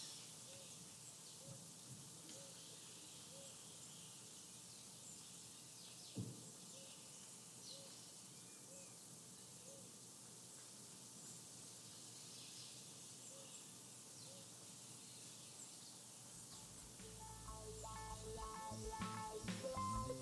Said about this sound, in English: And let's see if we can get another 30 seconds or so of those birds.